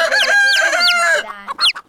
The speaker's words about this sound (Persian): بعد در دوم رو باز کرد. از در دوم جوجه ها و مرغا و خروسا تونتا می اومدن توی حیات و جیک جیک و قد و